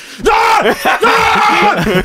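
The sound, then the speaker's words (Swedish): A person pretending to be in a rage screams a loud, strained outburst of shouted English words ending in "kill you," lasting about two seconds, with the voice straining and breaking in a few harsh bursts. “jag tror jag skrek det i min dröm också.”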